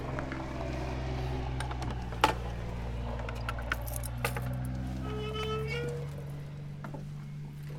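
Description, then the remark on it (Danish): A large bunch of keys is brought out at a historic house closed for the season, jangling and clinking in irregular bursts, with a few sharper metallic chinks, over a steady low hum. “Og nu har du det store nøglebund frem, og det er altså fordi, der lige netop nu er lukket for sæsonen, men det ændrer sig ved påsketid.”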